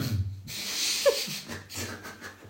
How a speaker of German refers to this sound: einfach zum Räuspern näher ans Mikrofon.